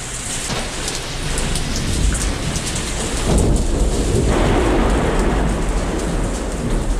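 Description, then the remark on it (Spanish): A fierce thunderstorm at sea over a ship two days' sail from Liverpool, October 1918, with heavy, steady rain and deep rumbling thunder that swells midway, loud throughout with no voices. “Una feroz tormenta se abate sobre el barco Trelawney, a dos días de navegación de Liverpool.”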